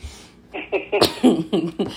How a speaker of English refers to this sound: Excuse me. Guys, that cough was not COVID. it's just this dry wine that I'm drinking because I like to drink during the podcast.